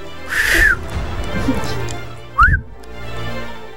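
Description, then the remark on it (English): A person whistles two brief notes, a breathy falling glide and then a quick rising chirp after a pause. It's moderately loud, with a faint murmur of background noise underneath. “Can you give us a sample? I mean, I've never heard you whistle.”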